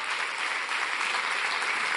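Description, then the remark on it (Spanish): An audience applauding for the Lord, a dense wash of many hands clapping at once, sustained and fairly loud throughout with no voices standing out. “Le damos un aplauso al Señor y después tomamos nuestro asiento.”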